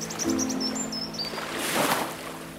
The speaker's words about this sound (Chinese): 听得到风声，听得到海浪声，听得到小鸟的叫声。